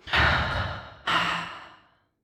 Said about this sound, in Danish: Og så prøv at tage nogle dybe vejrtrækninger helt ned i maven. Med udånding gennem munden.